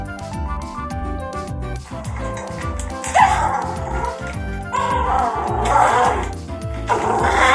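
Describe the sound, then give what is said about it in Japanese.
A dog that dislikes nail clipping struggles during a nail trim, barking, yelping and whimpering in distress. The cries are loud and continuously frantic, with rough, growling bursts that rise and fall without a break. “ちょっとここでですね爪切りが嫌で暴れる子の音声を聞いていただきたいと思いますちょっと流しますね”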